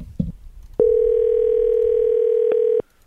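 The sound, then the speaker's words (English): A steady, loud telephone dial tone hums for about two seconds as a phone call is placed from a studio, with a brief blip near its end, preceded by a couple of soft clicks and low background rustle. “We need to get him on the line because this is Oakland Raiders related.”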